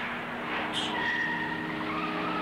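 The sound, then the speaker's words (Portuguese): A car in an old film scene brakes hard inside a car park, its tires letting out a sustained high-pitched screech over a steady engine rumble, loud for a couple of seconds. “Agora o cara já chegou com vontade, olha. Acabou com a suspensão do carro.”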